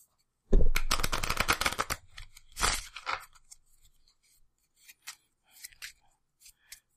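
A deck of playing cards is riffle-shuffled before cards are drawn one at a time, a dense burst of rapid flapping for over a second, then a shorter second riffle, followed by a few soft taps and card handling sounds.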